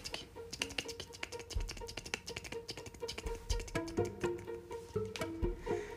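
Quick, light tapping clicks patter steadily for several seconds, crisp like tiny high-heeled steps scurrying along, imitating a little rabbit in high heels running off, with no voices over them.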